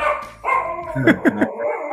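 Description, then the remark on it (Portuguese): The speaker's dog, Capone, barks angrily, a quick run of three sharp barks over a steady background hum with some whiny, grumbling vocal tones around them. “É meu cachorro, cachorro ficou bravo.”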